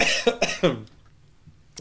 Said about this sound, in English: Are you holding your hand up so we won't see you cough? Was the microphone on? Hear you coughing?